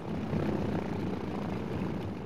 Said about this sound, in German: mit der ersten Passagiermaschine, die ganz aus Metall war, der Junkers F-13. Ein Flugzeug, das auch für Rekorde taugte, wie ein paar mutige Männer vor ziemlich genau 100 Jahren demonstriert haben.